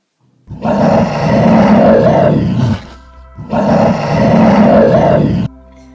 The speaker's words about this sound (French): La caverne était sombre, ténébreuse et effrayante. Soudain, l'ours grogna.